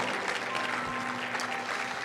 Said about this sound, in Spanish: Vamos, esta mañana, dele el fuerte aplauso a la persona del Espíritu Santo.